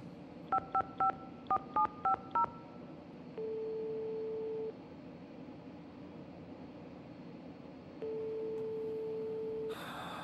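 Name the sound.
telephone keypad dialing tones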